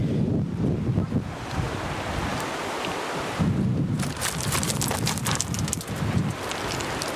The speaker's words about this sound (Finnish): Kukkolan koski. Koskien koski.